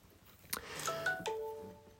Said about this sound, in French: Je m'excuse de cette euh, petite notification. Je vais, hop là, très vite mettre ça en veille